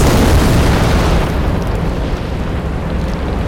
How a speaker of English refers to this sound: It's water! Pressure builds up from underneath the ice sheet and releases in tectonic shifts.